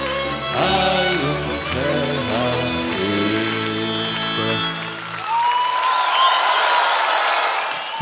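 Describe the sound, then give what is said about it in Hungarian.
On a radio broadcast celebrating a charity fundraising week, a song with singing and instruments plays for about five seconds, then gives way to loud, steady audience applause, a dense wash of clapping with a whistle rising through it. “a tapsot nem illik lekeverni, tudom, ezt szokták mondani.”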